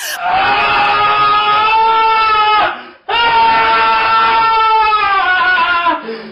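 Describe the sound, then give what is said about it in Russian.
A voice imitates a woman's loud screaming with two long, strained, wailing yells, each lasting a couple of seconds with a brief gap between. The yells are harsh and tonal, with no other sounds. “И она начинает орать. Я, я просто охерел. То есть, ну, это не то, что «а-а», ну, типа вот такие, знаешь, ага.”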